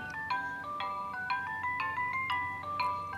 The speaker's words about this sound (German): Das ist eine Schildkröte aus Stoff, oder? Ja, genau, die macht so Musik. Und das war tatsächlich das erste Spielzeug, das uns vor einem Jahr in den Wahnsinn getrieben hat.